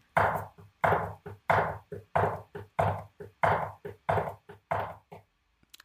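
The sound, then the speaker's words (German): A steady drum rudiment knocked out on a tabletop: about ten pairs of hard raps, each strong hit followed by a lighter one, in an even rhythm with no talking. “Ähm, der Hörter klingt also, ich mache das jetzt mal hier auf dem Tisch, vielleicht kann man das dann hören, würde dann so klingen.”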